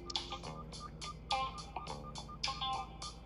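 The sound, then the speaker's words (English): A repeating electronic warning beep from a truck's low air pressure alarm in Tennessee, sounding even though the air pressure is at the max. Short bright tones pulse steadily about every third of a second over a low rumbling hum, with no talking. “and my air pressure is literally up at the max, and yet it's beeping at you know it's beeping saying like low air pressure.”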